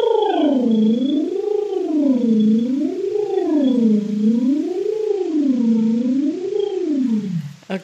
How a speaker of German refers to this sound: Eine meiner persönlichen Lieblingsübungen, das ist das Lippenflattern.